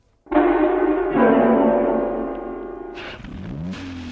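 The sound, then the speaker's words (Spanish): A car engine starts up and runs with a steady rumble, then its pitch shifts as the vehicle moves off and gears change near the end. “Se movía el coche y mil imágenes inconexas se despertaban en su memoria.”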